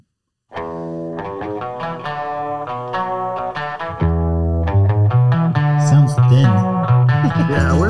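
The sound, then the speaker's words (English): A distorted electric guitar plays a repeating riff with a steady, choppy rhythm, joined partway through by a heavier low end as the recorded song fills out. It's loud, with no talking. “distortion, man.”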